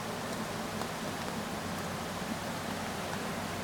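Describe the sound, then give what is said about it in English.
Steady, continuous rush of creek water running through a campground, a dense even wash of sound with no pauses or voices, holding at a constant moderate level throughout. “said almost everybody has a creek because of the three ways the creek is running in this campground.”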